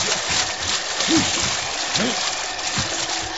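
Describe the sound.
A team of mules wading into freezing river water, with a steady rushing wash and a few heavy, irregular sloshing splashes, muffled voices faintly underneath.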